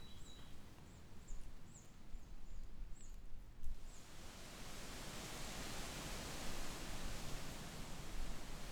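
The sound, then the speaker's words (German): Wind rustles through the lobed leaves and firm branches of an oak tree as a steady, dense hiss with a strong high-frequency rustle, swelling louder about halfway through and staying full, with a few faint bird chirps high in the background early on. “Im Gegensatz zum ruhigeren Rauschen der Rotbuche hat das Rauschen der Eiche durch die gelappten Blätter und die festeren Äste einen stark ausgeprägten hochfrequenten Raschelanteil.”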